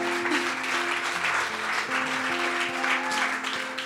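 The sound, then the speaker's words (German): A crowd claps steadily for several seconds as preacher Werner Gitt is called to the front, a dense, sustained wash of applause from many people with no individual voices standing out. “Ich glaube, das darf ein Applaus wert sein.”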